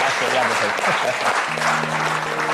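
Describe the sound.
Steady, dense applause from a crowd applauding themselves at the end of an event, a continuous wash of many hands clapping at even loudness, with faint voices and a low hum threaded underneath.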